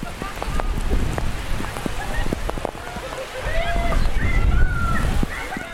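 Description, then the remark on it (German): Heavy rain pours down steadily on an outdoor protest rally, a dense wash of splashing and sloshing water with scattered sharper drips, and faint voices murmuring beneath it. “Genau, hier ist jetzt gerade tatsächlich ein bisschen Chaos, weil es enorme Regenmassen sind, die hier runterkommen.”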